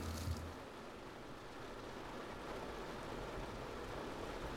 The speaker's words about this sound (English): What does the rain make you think of?